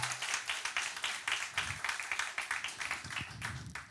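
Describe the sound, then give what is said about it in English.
A church audience applauds to show who is a member of Love Key Church, many hands clapping in a dense, irregular patter that holds at a steady, moderate level for a few seconds without fading. “Who here, you know, by, by show of applause, is a member of Love Key Church?”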